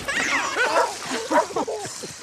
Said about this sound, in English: They're just playing. All right, get get out, get out, dog. Come on, we're just having fun.